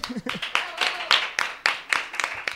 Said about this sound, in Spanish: Un aplauso para ella.